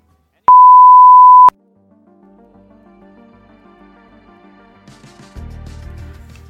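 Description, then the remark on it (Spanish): A single steady electronic beep about a second long, loud and clean, from an answering machine signalling the caller to leave a message, followed by soft music fading in underneath. “vas a tener que hablar con nuestro contestador. Todo lo que digas podrá ser grabado, escuchado y usado por nosotros. Por favor, deja tu mensaje después del VIP.”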